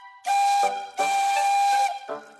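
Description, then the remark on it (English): The whistle of Emily, an emerald green tender engine from the Thomas the Tank Engine stories, sounds two long, loud blasts wrapped in breathy steam hiss, with a third blast just starting as the sound ends. It is clear, with no voices. “Emily has a whistle that sounds like this.”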